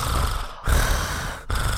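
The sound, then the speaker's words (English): A dog snorts and snuffles into the microphone in two loud, breathy bursts separated by a brief pause, with no talking. “That's some ASMR dog. for you right there.”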